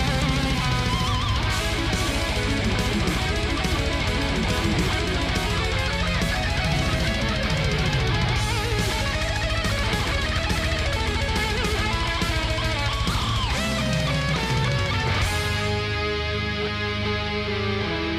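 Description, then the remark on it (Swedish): Loud, dense American death metal with heavy distorted guitars, pounding drums and a show-off shredding guitar solo running throughout, thinning out near the end as the cymbals drop away. “Bra USA-döds liksom.”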